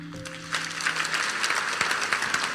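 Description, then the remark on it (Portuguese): A crowd breaks into steady applause, a dense, sustained patter of many hands clapping that swells quickly and holds at moderate loudness, following a brief held musical tone at the start. “Será que podemos dar uma salva de palmas mais?”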